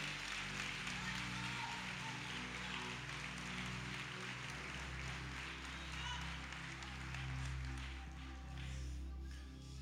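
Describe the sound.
A church audience claps for God steadily for about ten seconds, a dense, loud wash of applause with voices and a low sustained musical tone underneath.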